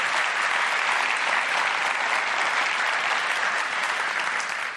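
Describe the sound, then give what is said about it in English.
A large audience at Foothill claps steadily and loudly to thank the sound and venue staff, a dense wash of applause that holds for the whole stretch before easing slightly at the end. “Would you please give them a big thank you for all of their hard work?”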